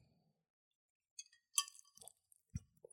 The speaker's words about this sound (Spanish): Vamos a darle un traguito.